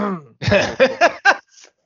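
A sneeze: a short voiced intake, then a harsh burst of air followed by three quick, breathy gasps, fairly loud, ending with a faint exhale.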